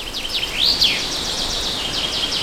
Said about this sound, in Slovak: Toto je zvuk najväčšieho filtra CO2 na Slovensku. Zachytí tony uhlíka. Áno, je to les.